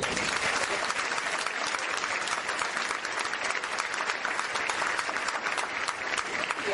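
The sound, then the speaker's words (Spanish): A crowd claps steadily and densely for several seconds, a sustained wash of many hands at a loud, even level with no pauses and no voices standing out. “Démosle un aplauso a”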